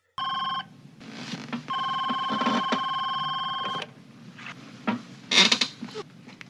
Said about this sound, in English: He gets a phone call from Weldon telling him that it's over between him and Lorraine, and he's getting out.